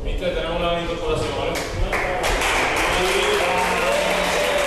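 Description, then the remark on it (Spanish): Sporting football players applaud their teammate Yuka, a dense patter of many hands clapping, with voices talking and calling over the sustained applause throughout; recorded by Sporting. “Estos eran los aplausos que le dedicaban sus compañeros, lo grababa el Sporting”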